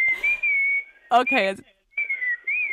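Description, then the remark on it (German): Several people whistle bird-call imitations in two steady, warbling stretches, with a brief spoken word between them; the whistles are clear and fairly loud. “es sind jetzt ganz viele Vögel noch mit dabei.”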